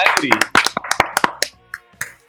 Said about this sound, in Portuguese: Palmas, por favor, palmas.